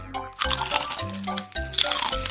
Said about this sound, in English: Baby Bug was chewing a leaf.